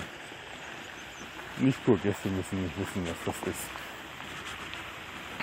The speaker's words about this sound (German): Ihr hört jetzt hier ziemlich laut wahrscheinlich da im Hintergrund ein lautes Plätschern. Hier gibt es überall Brunnen und äh, Teiche.